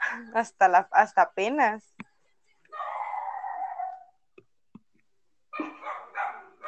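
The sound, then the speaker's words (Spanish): A pet dog named Toby barks in a quick burst of five or six sharp yaps, followed by people talking and laughing. “Bueno, perdón si se escucha un perro, es mi perro ladrando.”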